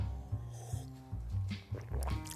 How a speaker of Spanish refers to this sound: Voy a tomar un buchito de agua.